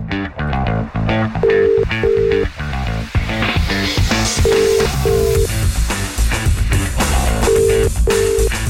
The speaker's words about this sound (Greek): πάμε να κάνουμε wake up call πάμε να πάρουμε τη Σοφία παιδιά τηλέφωνο